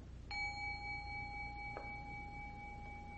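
A gong is struck and rings with a clear, sustained metallic tone, followed by a second lighter strike, the resonance lingering steadily with no talking.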